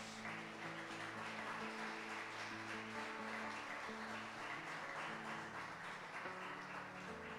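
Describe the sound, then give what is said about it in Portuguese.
A crowd claps for God in a steady, dense round of applause that holds for several seconds, with sustained musical chords playing underneath and no talking. “Pode dar uma salva de palmas a Deus.”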